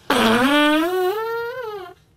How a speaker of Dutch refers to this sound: er zijn er die die muzikale scheet echt hebben geperfectioneerd